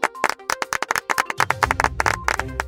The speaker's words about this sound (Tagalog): Palakpakan naman dyan. Hindi yan, yung medyo malakas.